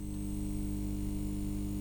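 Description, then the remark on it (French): A steady electrical buzzing hum from a lit fluorescent (neon) tube, a gas-filled glass tube carrying electric current, constant and unbroken throughout, with a low droning tone and faint higher whine, fairly quiet. “qu'on va appeler buzz ou bourdonnement.”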